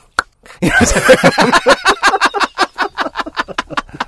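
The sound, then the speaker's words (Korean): A firework pops off with a short sharp crack, then sputters in a rapid, stuttering string of crackles that slowly weaken and fizzle out, with nothing else in the background. “근데 사실 이 폭죽 자체도 음. 아까 그런 소리가 딱 난 다음에 네. 위에서 상상에서는 펑뭐 이러면은 그쵸.”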